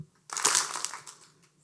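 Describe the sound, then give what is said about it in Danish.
A sudden burst of clapping as an audience of about 230 people claps once together, many hands striking at once, loud and crackling at the start, then thinning out and fading over about a second. No one speaks. “Men jeg øh, prøver lige at klappe en gang alle sammen, så jeg kan høre det.”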